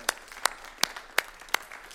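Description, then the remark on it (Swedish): Hands clapping in a steady, even rhythm, five crisp sharp claps about a third of a second apart, moderately loud with no voices over them; applause for the worship singers at a meeting. “Tack så mycket, ska vi ge lovsångarna en applåd också?”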